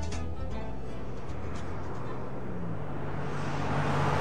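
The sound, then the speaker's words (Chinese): A steady, loud roar of a car moving fast on a highway to the airport, with a low engine drone that climbs slightly in pitch toward the end and a constant hiss of road noise. “汽车高速的飞奔在去机场的高速公路上”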